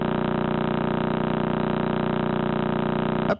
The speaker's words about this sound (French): Et donc ça c'est le pulsar du crabe que je vous fais écouter, il tourne à 30 Hz.